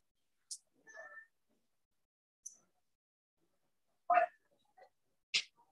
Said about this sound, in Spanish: vamos a seguir hablando porque tenemos acá un, pequeño, se nos metió el gato.